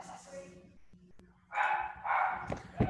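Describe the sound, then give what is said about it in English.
A dog barks loudly in a few rough, excited bursts that follow one another quickly after a quieter, murmuring start, reacting to someone at the front door. “Who's barking? Oh, my dog.”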